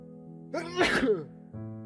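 A single loud, explosive sneeze with a short breathy intake before it, set against a steady, soft musical background that continues after the sneeze ends.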